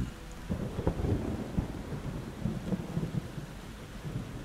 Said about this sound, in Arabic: إنها تمطر نعم إنها تمطر بالفعل إذا هيا افعلها إنه طقس فريتز